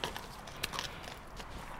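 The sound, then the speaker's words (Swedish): Slow, soft hoofbeats of a horse walking after being let out to move around, a few irregular muffled steps over a low, steady background hiss, with no talking. “Eh, så nu har han fått eh, komma ut lite för att röra sig och hålla sig lite mer eh, bekväm igen så ska vi Börja med att ge lite kramplösande läkemedel.”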